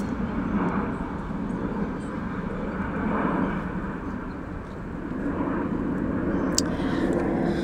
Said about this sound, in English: oh, oh, oh the planes